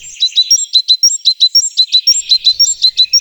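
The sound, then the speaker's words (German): A great tit in Berlin sings a quick, steady run of bright, high-pitched chirps, roughly four per second, each note clear and loud, with no voices or other sounds underneath. “Ja, so klingt es in Berlin.”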